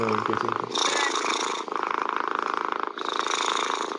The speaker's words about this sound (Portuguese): Nossa, eu não tava esperando ser um, um gato roncando de verdade. Eu, tipo, levantei assim, meu Deus, que barulho é esse? Tem um gato no meu quarto.